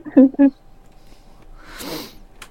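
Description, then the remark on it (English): A short voiced sound comes first, then a single breathy sneeze bursts out, a noisy hiss lasting about half a second at moderate volume. “Bless you.”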